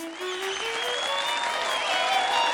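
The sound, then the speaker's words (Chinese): A large crowd at a performance arena applauds in a dense, steady roar of clapping, with high cheers and screams rising over it after a performer jumps through a ring of fire, staying loud for the whole stretch without any talking. “当这个身影一个翻转，最后安全的落在表演场中的时候，全场尖叫、鼓掌，排山倒海而来啊！”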